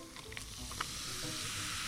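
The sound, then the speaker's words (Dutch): Steady fizzing of Diet Coke poured over lots of ice, a dense crackling hiss with a few sharper clicks of ice near the start, continuing without pause and no voices. “Dit is het geluid van een Diet Coke with a lot of ice,”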